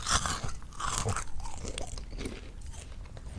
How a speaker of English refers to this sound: Um, well, my favorite sound is the sound of eating Cheez-Its, if I if I may be so bold as to share.